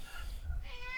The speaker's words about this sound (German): Äh, Leute, wenn ihr einen Miauen hört, das ist mein kleiner Nörgling, der hier in der Wohnung durch die Gegend Der kleine rennt.